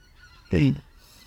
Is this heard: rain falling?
no